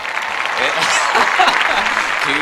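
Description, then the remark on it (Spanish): A burst of steady applause from a group, many hands clapping in a dense, even wash of sound that holds at a consistent loudness throughout. “un aplauso a todos.”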